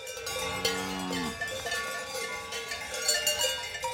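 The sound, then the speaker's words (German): Several cowbells on five grazing Murnau-Werdenfels cows, an old endangered breed, clank and jingle irregularly in the shade of tall trees on a mountainside near Partenkirchen, overlapping in a busy metallic chorus, with a low hum fading out early on and no voices. “schaut die Partenkirchner Bäuerin Froni Bartel nach ihren Kühen”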